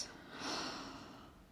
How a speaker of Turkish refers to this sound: Önce derin bir nefes al burnundan ve ağzından boşalt.